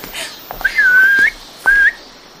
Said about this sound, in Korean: 관람객이 다가오자 나는 휘파람을 불어 소린에게 신호를 했다.